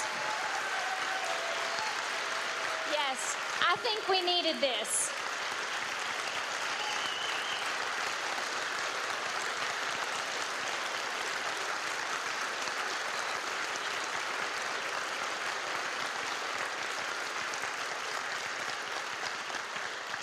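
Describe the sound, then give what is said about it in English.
Sustained applause from an audience, a round of applause given to thank guests for joining, steady and dense throughout, with a brief spoken remark near the start partly buried beneath the clapping. “I want us to give another round of applause”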